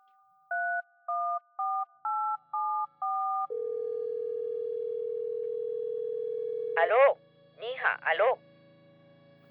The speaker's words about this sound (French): écoute le menu d'une carte d'appel et finit par composer un long numéro de téléphone.